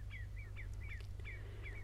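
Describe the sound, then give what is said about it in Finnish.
A series of short, clear descending whistled calls from a common redshank, a wader, repeated rapidly about every quarter second, over a steady low background hum. “Viikon luontoääni: Punajalkaviklo”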